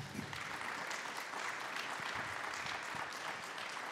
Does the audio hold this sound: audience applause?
yes